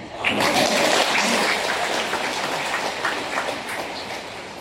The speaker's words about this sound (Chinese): 让我们掌声祝贺读经员的错误。